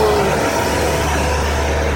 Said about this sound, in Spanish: un, camión de estos eh, que limpian las aceras y como voy con el carro y es una acera que da eh, justo para, que pase el camión, pues no, no podíamos pasar los dos y he dejado que el camión pasara